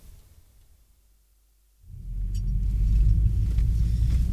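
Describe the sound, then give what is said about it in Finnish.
After a near-silent moment, the engine of a police car fitted with a cage starts up and settles into a steady low rumble, fairly loud, idling with no voices. “Mikä se tämmönen auto Tässähän on häkki ja kaikki.”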